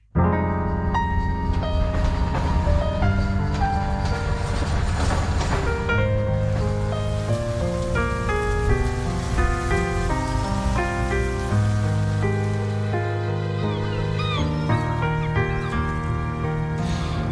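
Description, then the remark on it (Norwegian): Ambient soundscape from the Norwegian indie video game Embracelet, for PC and Nintendo Switch: a soft, steady wash like ocean surf runs throughout under sustained, gently shifting melodic tones. Fairly loud and even, with no voices. “Det her er altså lyd fra spillet Embracelet”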